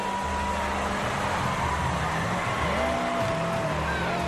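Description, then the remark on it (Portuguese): Race car engines roar loudly and continuously while tires squeal and skid in thin, wavering whines over the dense mechanical noise, steady for a few seconds, as one car slows and the car behind is hit in an accident on the track. “o carro atrás dele reduziu e o outro carro bateu nele, tem um acidente.”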